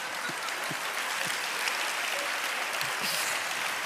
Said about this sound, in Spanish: ¿A quién estás aplaudiendo?